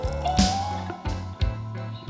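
Water runs steadily from a tap into a sink while pots and glasses are washed, a continuous splashing with a low humming pipe tone and a few brief clunks and splashes as dishes shift.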